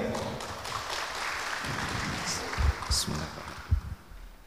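Audience applause forms a steady, dense wash of clapping, with a few louder claps and thumps standing out toward the end.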